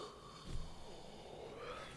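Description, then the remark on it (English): A drawn-out, breathy yawn, opening with a soft rush of air and trailing off into a low exhale. It's fairly quiet, with no talking. “Revenge of the Yawns tonight.”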